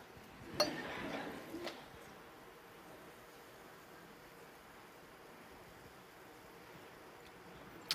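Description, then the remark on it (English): Champagne is poured into a glass: a sharp clink, then about a second of soft fizzing, splashing hiss that fades into a quiet, steady background, with another faint click at the end. “Let me pour some out.”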